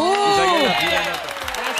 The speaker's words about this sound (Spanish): Están en fila los peores amantes del mundo. Aplausos para ellos. ¡Bravo!